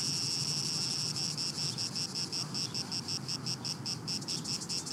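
Cicadas buzz in a loud, steady high-pitched drone that breaks into a fast, regular pulsing rhythm partway through, with a low rumble underneath and no voices.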